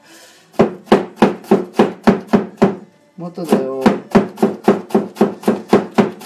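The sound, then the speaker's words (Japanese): A knife chops steadily on a cutting board while making salad for dinner, sharp regular knocks at a quick even pace, loud, pausing briefly midway while a voice says a few words, then resuming. “えー、っと、今日はもうできてるんですけど、えっと、牛肉と根菜のカレーすいません音がうるさくて”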